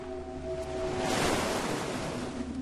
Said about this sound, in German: Das Meer ist heute stürmisch. Maria und die anderen beobachten die Wellen.